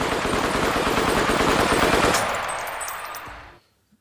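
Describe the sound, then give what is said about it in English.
A gunfire sound effect: a rapid, sustained burst of gunfire rattles continuously for about three seconds, loud, then tapers off into a fading echo before silence. No one speaks. “I want to get the applause. and I want to get the gunshots.”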